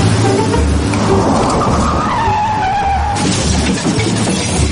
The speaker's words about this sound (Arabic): يا اخي انت ما تشوف كسرت فانوس السيارة شوت شوت شوت الكورة يا ساتر يا ولد كسرت الفانوس